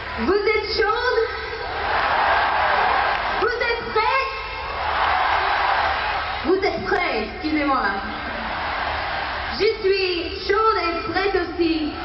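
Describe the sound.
A huge concert crowd of nearly 150,000 people at the Parc de Sceaux, France, in 1987 cheers and screams, a steady roar of voices with shrill, rising shouts surging in waves every few seconds, loud throughout.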